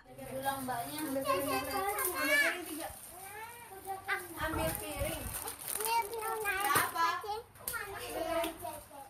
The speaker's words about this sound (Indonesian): Tangis bayi, celoteh, dan gelak tawa anak-anak mewarnai keseharian rumah bercat biru di Jalan Kabar Raya Timur, Kota Semarang, Jawa Tengah. tak ada yang bakal mengira pemilik suara-suara itu adalah anak dengan HIV/AIDS.